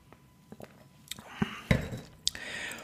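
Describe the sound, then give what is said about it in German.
Glasses of wine clink together in a toast, a few bright, ringing taps scattered over a couple of seconds, with soft clattering and rustling between them and no talking. “Prost.”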